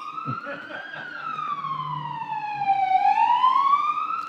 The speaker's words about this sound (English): This reminds me so much of August 4th whenever I hear ambulances. it's like all we could hear.